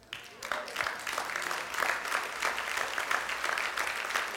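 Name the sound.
audience applauding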